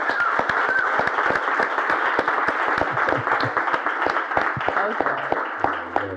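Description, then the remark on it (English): Steady, dense applause from an audience for a guest fills the whole stretch, many hands clapping at once with crisp sharp claps poking out, some murmured voices underneath. “let's give a round of applause for Dr. Price, y'all”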